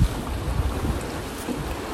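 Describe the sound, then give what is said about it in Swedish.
Waves wash steadily against a beach outside Hovås cold bath house in Gothenburg, Sweden, on a sunny, windy 30 January, with strong wind buffeting the microphone, a continuous outdoor rush of water and air with a low rumble and no voices. “Vågorna slår mot eh, stranden och solen skiner.”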